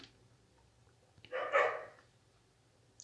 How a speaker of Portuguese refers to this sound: os cachorros do caralho estão latindo. Porra!